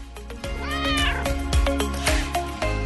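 A cat meows loudly and insistently, a drawn-out rising-and-falling yowl followed by several shorter meows in quick succession, with a steady low background hum.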